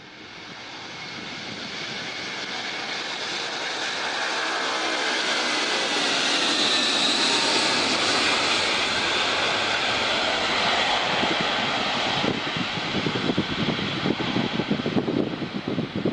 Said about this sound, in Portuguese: Uh, atualmente não têm passado aviões eh, pela base das lajes, mas, como dissemos no princípio do programa, uh, em 2015, e vamos ver essas imagens, passou por aqui o Antonov 225, que é, ou era um símbolo da Ucrânia.